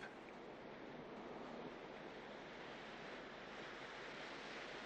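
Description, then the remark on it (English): A steady, broad wash of ocean surf rolls on without pause, a constant rushing hiss with no distinct individual breakers standing out, and no voices. “I've never seen a painting that captures the beauty of the ocean at a moment like this.”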